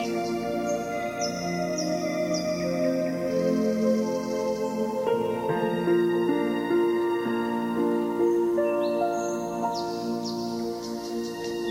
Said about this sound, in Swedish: Du hör nu skogens fågelkvitter som en harmonisk komposition runt omkring dig. Lyssna hur ljuvligt tonerna från skogens fåglar ljuder emot dig.